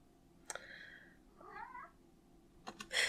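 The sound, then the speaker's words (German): A cat meows twice in a row, the first call drawn out and steady, the second rising and wavering, fairly soft, with a few sharp clicks and rustles around them and no talking. “Die Katze müssen wir vielleicht rausschneiden.”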